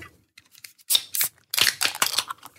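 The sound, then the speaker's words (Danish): A drink being opened for a toast: a few soft clicks, then crisp, crackling bursts and a fizzy hiss that fill the second half, with no one talking. “Alle tre er jo super glade for, at I vil være med i fredagspanelet, og øh, traditionen tro, så skal vi alle sammen lige sige skål, så øh, I må meget gerne åbne, hvad end I drikker.”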